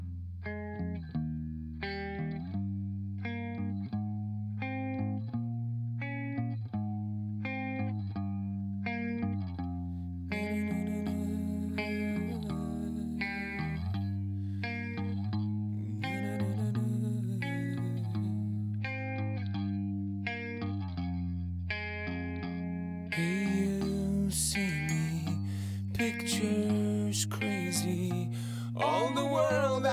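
A heavy rock song driven by distorted electric guitars, loud and steady throughout, with repeating chord phrases that swell into denser, crashing sections partway through and again toward the end.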